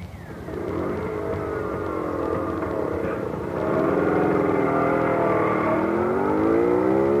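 A scooter's small motor engine starts and runs loud, revving with rising and falling pitch for several seconds before climbing to a higher, steadier whine.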